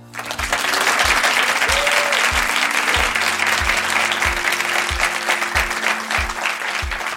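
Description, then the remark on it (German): Sustained audience applause, a dense, steady crackle of many hands clapping at full volume throughout, with a regular low thumping beat pulsing underneath. “Ihr hört es, Publikum war auch dabei.”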